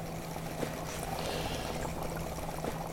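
Continuous bubbling of an oxygen humidifier supplying oxygen, a steady gurgling churn of water with small irregular pops over a faint low hum, constant throughout.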